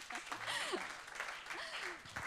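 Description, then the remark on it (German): An audience applauds a guest on stage with dense, steady clapping that fills the whole stretch, while scattered cheering voices with rising and falling pitches sound through the noise. “ihr könnt ja auch schon direkt Applaus geben.”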